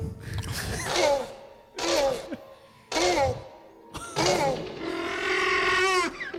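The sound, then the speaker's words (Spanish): A boy imitates a velociraptor's call, recreating the dinosaur's sound with four shrill, rasping screeches separated by short pauses, the last one drawn out longest, loud. “Sí, efectivamente, eso que estáis escuchando es el sonido recreado de un velociraptor, un dinosaurio que protagoniza todas y cada una de las cinco películas de la saga.”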